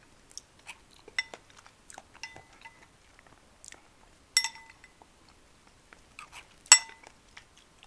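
Light clinks and taps of cutlery against dishes during a meal, scattered irregularly with a few brighter ringing knocks, alongside soft chewing noises. Quiet, with no talking.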